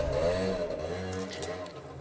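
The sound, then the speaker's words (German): A motorcycle engine rumbles and revs outside, a steady throaty drone with slight rises in pitch, heard for about two seconds with no one talking. “Da ist ja mal der Chef mit seinem Motorrad.”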